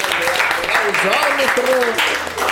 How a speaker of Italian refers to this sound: Un grande applauso.